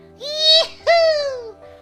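A baby babbles in two high, voiced sounds: a short rising-falling one, then a longer, drawn-out call that slowly trails downward, over a faint low background hum.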